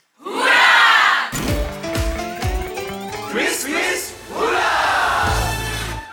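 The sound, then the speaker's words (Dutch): A loud live audience at a quiz cheers and shouts, breaks off as a short bright musical sting plays, then roars again with whoops and yells until the end. “nu ga ik dat publiek even lenen, want dit is nog steeds quiz-quiz”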